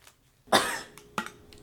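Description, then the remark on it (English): A loud cough bursts out from a tickle in the throat, followed a moment later by a second, shorter cough, with quiet pauses around them and no talking. “Felt the cough.”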